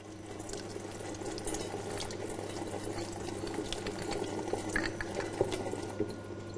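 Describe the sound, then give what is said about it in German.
Water runs steadily from a sampling tap while a water sample is taken for microbiological testing, a continuous hiss with faint splashing and a low mechanical hum underneath. No one speaks. “Vor der Entnahme für die mikrobiologische Probe muss er den Entnahmehahn abflammen, damit keine Keime ins Wasser gelangen.”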